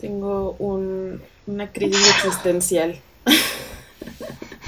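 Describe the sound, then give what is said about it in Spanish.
A single sharp sneeze bursts out in the middle of a conversation, with a person talking just before and after it. “Salud.”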